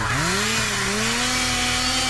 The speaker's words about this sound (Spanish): Para ganar de vida o muerte con el show de Raúl Brindis, vas a necesitar motosierra.